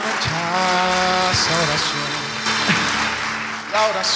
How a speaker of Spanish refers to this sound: Dale fuerte ese aplauso a Él.